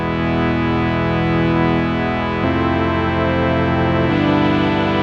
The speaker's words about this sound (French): Là, il tourne le bouton. Synthé de 15 ans.